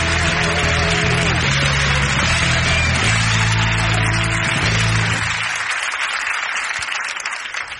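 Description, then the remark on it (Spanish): A crowd applauds loudly to welcome a comedian, dense clapping filling the room with a sustained wash that carries on steadily before gradually thinning out near the end, with a low musical tone sounding underneath at first. “¡Recibamos con un fuerte aplauso”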